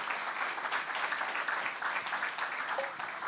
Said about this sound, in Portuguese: Será que você pode aplaudir Jesus por tudo que ele tem feito?